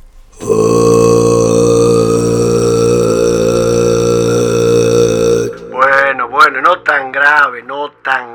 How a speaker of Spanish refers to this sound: Vamos a hacer algunas pruebas. Por ejemplo, cantando el sonido más grave que podamos entonar.